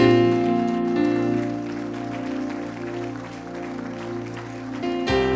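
An audience at an evening church service stands and claps steadily for several seconds as applause to the Lord, the dense patter of many hands running under loud, sustained keyboard or organ chords that hold throughout.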